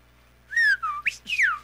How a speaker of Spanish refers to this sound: de chiflido perdedor, pero no tan perdedor.